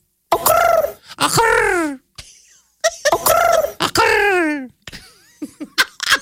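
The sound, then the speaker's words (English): Two voices take turns imitating bird calls, trading loud, warbling, rising-and-falling squawks back and forth in quick succession, followed by a few shorter clucking sounds. “like two birds communicating with each other.”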